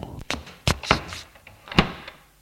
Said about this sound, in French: Ferme la porte en la claquant.